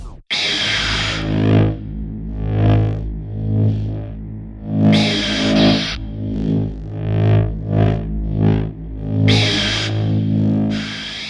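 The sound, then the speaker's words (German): A loud, steady buzzing hum of a recreated sci-fi laser sword sound effect, swelling and dipping as it swings, with sharp crackling bursts at the start, middle and near the end; no voices. “Und hier kommt das fertige Schwert.”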